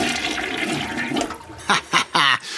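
A toilet flushes with a loud, rushing whoosh of water for about a second and a half, followed by three short, tonal gurgling bursts as it drains.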